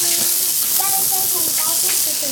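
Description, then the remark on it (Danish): Steady, dense hissing and sizzling fill the whole stretch, like fire crackling, with faint tonal voices or murmurs drifting underneath. “Ild over det hele her.”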